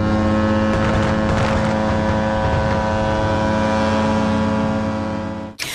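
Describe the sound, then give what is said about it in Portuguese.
Cruise ship horns blast across the water at Funchal, Madeira, on New Year's Eve, in one long, continuous chord, several deep tones overlapping loudly and steadily before cutting off abruptly near the end. “Um som habitual na passagem do ano na Madeira, ouvido desde o mar e por toda a cidade do Funchal.”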